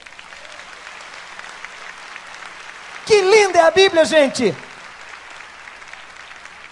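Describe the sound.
Audience applause runs steadily throughout as a dense, even wash of clapping at moderate level, applauding God after a speaker asks them to, with a single voice speaking loudly over it for a moment in the middle.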